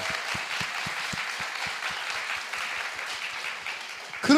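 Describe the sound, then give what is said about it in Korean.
Steady applause from a group, dense overlapping claps at a lively even pace, fairly loud throughout, ending with a brief louder burst as it winds down. “아 박수 한번 주세요.”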